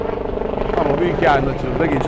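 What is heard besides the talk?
helicopter flying past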